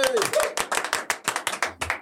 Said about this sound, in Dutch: Een enorm applaus met twee, van, van vier handen voor Julius Jaspers.